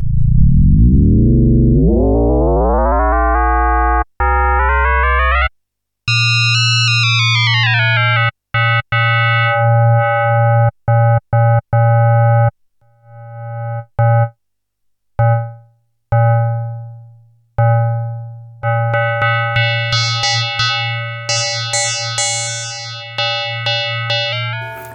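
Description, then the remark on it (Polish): A loud, metallic FM synthesizer tone, with its modulated kernels detuned in semitones, sweeps upward in pitch, then breaks into choppy, stuttering bursts with gaps, ending in a bright, buzzy sustained drone with a deep bass layer; no one speaks. “Szukając bardziej metalicznych dźwięków, warto przejść na odstrajanie w półtonach.”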